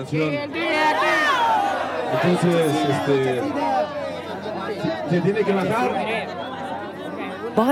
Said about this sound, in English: While the crowd waited for the assembly to begin, loudspeakers played reggaeton and the crowd danced. When it was time to start the assembly, the music was turned off and half the crowd protested.